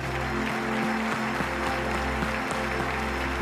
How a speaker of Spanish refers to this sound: A ver, mi querida iglesia de hispanos que sostienen al mundo como graneros, levanten un aplauso al Señor y digan, Señor, sello esta palabra en días de diciembre. Uy, más, más, más.